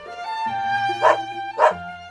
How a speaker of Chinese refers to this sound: 听到娜娜的吠叫，约翰哽咽着说：“ 嗯，怎么办？娜娜被绑起来了，她好伤心啊！ 她不是伤心，是担心，好像有什么事要发生。